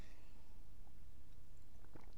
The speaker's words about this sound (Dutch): Even een slokje water.